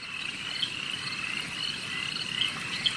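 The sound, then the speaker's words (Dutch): A dense chorus of three kinds of frogs calling at once, overlapping in a steady, shrill trill with a few sharper calls popping out near the end, no voices present. “Ik hoor hier drie soorten kikkers.”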